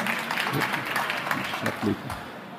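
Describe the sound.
Steady applause from an audience, a dense patter of many hands clapping at an even level, with faint voices mixed in underneath.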